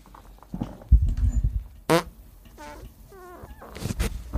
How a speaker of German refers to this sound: Also ich habe aber direkt ins Mikro gefurzt.